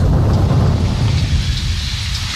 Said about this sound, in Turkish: Bu başındaki yağmur sesleri falan filan hepsi bana geliyor yani şu anda. Hepsi yani.